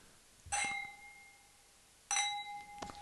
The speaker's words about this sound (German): Ich dachte, wir stoßen an.